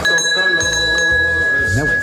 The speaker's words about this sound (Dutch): Deurbel doet het niet, trek aan de bel aan de muur.